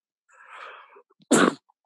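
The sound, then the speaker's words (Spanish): A single sneeze: a breathy, rising inhale lasting about a second, then a sharp, loud explosive burst that cuts off quickly. No talking. “¡Salud!”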